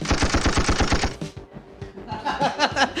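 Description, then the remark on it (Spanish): A loud, rapid burst of machine gun fire, about a dozen shots in quick even succession, then a cut to quieter, scattered rumbling and crackling with no talking. “Está, peligrosa aquí la colonia, güey.”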